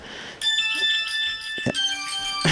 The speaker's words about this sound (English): hold on a second diamond dave's phones are ringing